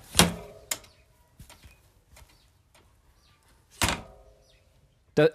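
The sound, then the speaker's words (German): A bicycle kickstand being folded back up snaps with sharp metallic clacks: two quick ones at first, another after a pause, and a final clack at the end, with quiet rattling between; a seatbelt buckle release is also heard. “Das zweite Geräusch war ein Fahrradständer.”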